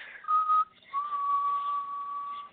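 Someone whistles a slow, gentle tune: a short held note, a brief pause, then a long steady note that lingers. It is clear, with no talking.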